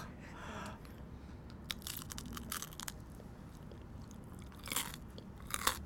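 Sharp, crisp crunches as someone bites into a crispy canelé, a cluster of crackly bursts early on, then a couple of louder isolated crunches near the end, with no talking.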